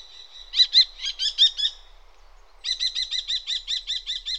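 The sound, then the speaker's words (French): A small, pigeon-sized falcon gives shrill, rapid calls: a short burst of sharp, ringing notes, a brief pause, then a longer even series. The calls are clear, with nothing else audible. “Ce petit faucon, de la taille d'un pigeon, a la tête et le cou gris foncé pour le mâle et châtain clair rayé de brun foncé pour la femelle, ainsi qu'une moustache noire, marque caractéristique des faucons.”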